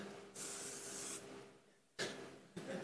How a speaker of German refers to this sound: Ich sprühe dich kurz an.